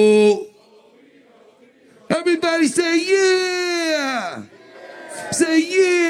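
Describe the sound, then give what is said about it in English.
A live show audience chants long, drawn-out "oh, we, oh" vowel calls in unison answering a leader, a brief shout, a pause, then a sustained swelling cry and another call rising again. “Come on and say, oh, we, oh, we, oh.”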